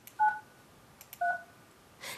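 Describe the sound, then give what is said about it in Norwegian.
Two short electronic touch-tone beeps from a phone keypad, each a steady dual tone, spaced about a second apart, followed by a faint click and a soft burst of noise at the end, as someone in Oslo phones contacts in Iran. “som ringer kontakter i landet.”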